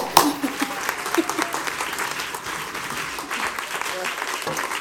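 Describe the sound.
An audience applauds steadily for about five seconds, a dense, even wash of many hands clapping, with a brief shout near the start and faint voices mixed into the crowd noise.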